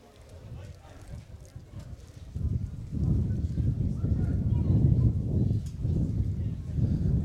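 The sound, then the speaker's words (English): Wind picks up during an under-17 boys Division 1 grand final football match between Eschol Park and Narellan Rangers, building from a soft rush into a loud, low rumbling buffet that roars steadily, swelling and easing in gusts. “Hear the wind picking up.”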